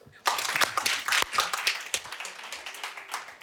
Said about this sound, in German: Kurzer Applaus.